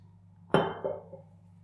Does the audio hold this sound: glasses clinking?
yes